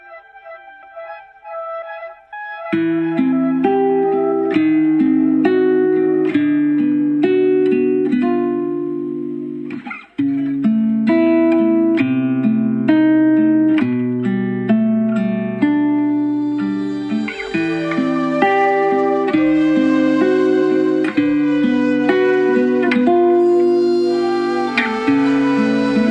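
An instrumental song passage with keyboards and jazz saxophone: a lone melodic line opens softly, then a full, steady band enters with sustained chords and a busy, bright melody running throughout.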